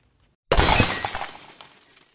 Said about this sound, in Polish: O nie, teraz rozbiła z szampanem kieliszki.